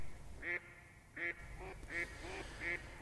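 A mallard duck quacks in a series of short, nasal calls, about six in quick succession with brief pauses, against a low outdoor background rumble.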